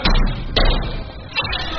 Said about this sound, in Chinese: 然而，民警敲门后，并没有人开门。